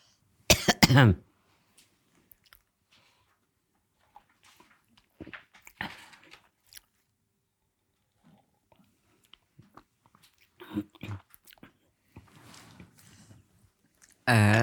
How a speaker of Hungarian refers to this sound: Bocsánat, egy kis vizet kell innom.